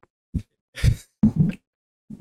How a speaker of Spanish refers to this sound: Mira, mira, me estoy deprimido. Mira, me estoy deprimido. Estoy llorando aquí.